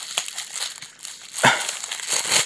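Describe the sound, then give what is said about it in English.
Crinkly wrapping paper being torn and unwrapped from a package that is also wrapped in an envelope, with continuous rustling and crackling and a sharper rip midway through. “They got it wrapped up in this wrapping paper thing, and then they've got it wrapped in the envelope too. Oh, we got an opening.”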